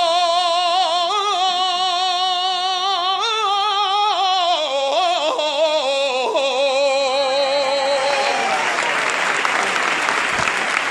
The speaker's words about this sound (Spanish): Irrefrenable el aplauso porque ha estado enorme